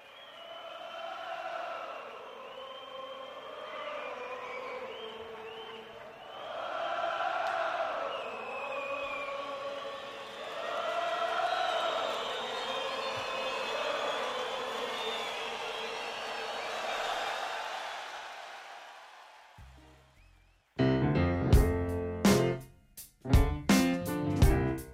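A large audience cheers and calls out in a sustained roar for about twenty seconds, then a live band suddenly launches into a loud, punchy tune with sharp drum hits, a track from a live jazz album.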